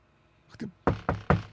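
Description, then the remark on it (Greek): Three firm, evenly spaced knocks on a door while delivering a food order, fairly loud, preceded by a softer, muffled tap; no voices, just quiet background between the raps. “Χτυπάω την πόρτα.”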